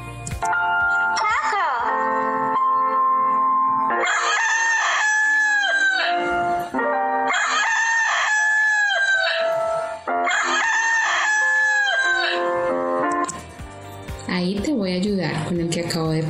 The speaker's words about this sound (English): La respuesta correcta es It's a rooster. Repeat after me. It's a rooster.